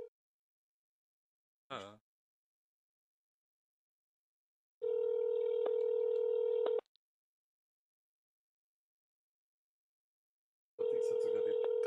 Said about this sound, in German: Jag tror att det är telefonen